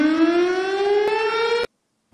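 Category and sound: sound effect, siren sound effect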